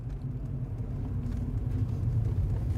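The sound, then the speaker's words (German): A car engine runs steadily at idle or low speed as the car is driven to a house, where the engine is switched off at the front door; a continuous low rumble and hum with no speech, holding an even loudness throughout. “Als Papa vor Mamas Haustür den Motor ausschaltet”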